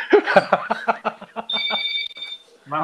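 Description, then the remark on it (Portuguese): A doorbell rings with a steady, high electronic tone lasting about a second, following a run of short, choppy vocal bursts like laughter or chatter; an iFood food delivery is arriving at the door. “Ó, tô com a campainha Alô?”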